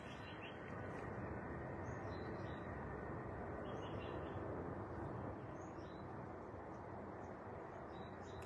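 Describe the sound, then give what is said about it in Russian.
Faint birdsong drifts in, scattered short chirps and tweets sitting over a steady, broad outdoor rumble that fills the whole recording. No one speaks. “Оказывается, тут птицы все это время пели.”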